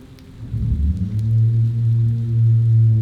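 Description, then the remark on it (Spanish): A rainstorm at night with a deep, steady rumble that swells in the first second and then holds, a faint wash of rain above it, and no voices. “Y gracias a ti porque no todo mundo logra terminar un episodio de Relatos de la Noche, menos en, en noches de tormentas como esta.”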